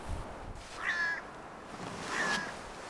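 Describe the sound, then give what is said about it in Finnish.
Two harsh, rasping caws from hooded crows, about a second apart, over a steady outdoor hiss, with no one talking. “Täällä on tämmöinen varisten konsertti meidän taustalla.”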